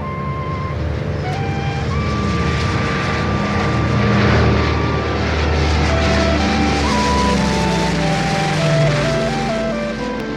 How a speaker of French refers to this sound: Dernier tour de piste pour l'aéroport de Tempelhof.